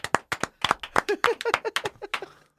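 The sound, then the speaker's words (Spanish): A quick burst of hand clapping in answer to a call to applaud, around eighteen sharp, crisp claps in an uneven, brisk rhythm, moderately loud and with no talking over it, fading slightly at the end. “¿Por qué no aplaudes? Venga.”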